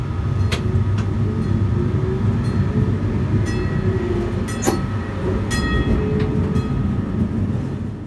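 A VT2E railcar rolls along the rails with a loud, steady low rumble, punctuated by occasional sharp metallic clicks and brief high squeals from the wheels. No one speaks.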